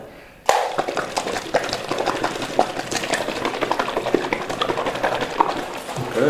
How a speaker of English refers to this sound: I'm shaking the cashew milk.